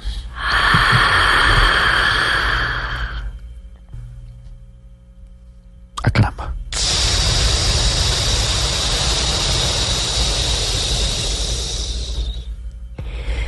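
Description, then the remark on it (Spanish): Two long, forceful breaths of yogic cobra breathing: a hissing, snort-like inhale lasting about three seconds, a pause, then a sharp catch and a longer rushing exhale for about six seconds. “Una respiración cobra, Una respiración cobra.”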